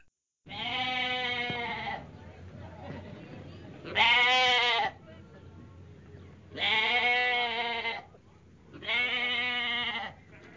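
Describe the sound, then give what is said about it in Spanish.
Goats or sheep bleat four times in long, drawn-out cries with short pauses between, loud, over a steady low rumble of outdoor background noise, as the herd walks one after another in orderly line ahead of a man, setting out to graze. “Al interior de la casa, un hombre se calza para comenzar sus tareas toma una lámpara y acude hasta donde las bestias y una tras otra caminan en perfecto orden delante de él.”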